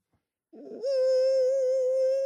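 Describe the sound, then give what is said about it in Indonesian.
A person imitates a mosquito's buzz with a loud, steady, high nasal whine held for about a second and a half after a brief breathy onset, with no other talking. “Suara nyamuk tuh gini.”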